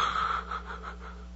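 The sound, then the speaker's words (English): A person imitates a newborn baby girl's gasping first breath: a breathy inhalation with a faint whistling edge, stretched over about a second with small pulsing surges, and no talking. “And to see that baby girl take her very first breath to hold her in my hands as she gasped and sucked it in.”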